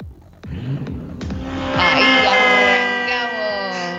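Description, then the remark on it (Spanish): A car engine revs up hard and its tires let out a loud, sustained squeal that rises and holds for a few seconds, intense. “¿Qué marca hacer ese carro?”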